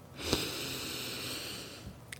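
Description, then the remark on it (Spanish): A long, steady deep breath drawn in through the nose, a breathy hiss lasting nearly two seconds, fairly quiet, with a brief sniff at the start and no talking. “Y vamos entonces a seguir seguirme con con mi voz vamos a, regalarnos una pequeña respiración profunda donde vamos a inhalar aire por la nariz”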